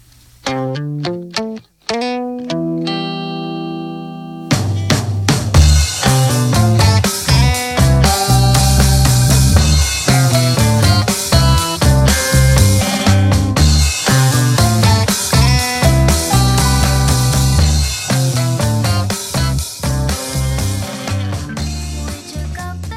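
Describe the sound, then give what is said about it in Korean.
A pop band recording opens with a few sparse, plucked-sounding notes, then the full band kicks in around four seconds with steady drums, bass and bright layered instruments at a loud, even level. “이게 소니가 인공지능을 이용해서 만든 노래 중에 같은 제목의 노래가 있거든요.”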